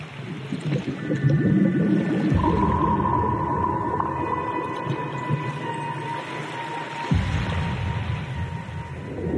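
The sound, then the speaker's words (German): Dark, brooding suspense music with long sustained tones and a steady hum, layered over murky underwater ambience with gurgling, low rumbling swells; no voices, just a continuous eerie wash. “Ja, Spannungsmusik läuft, mysteriöse Atmo, Wassergeräusche.”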